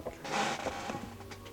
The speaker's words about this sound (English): Squeaky chair. Yeah, we need to do something about that.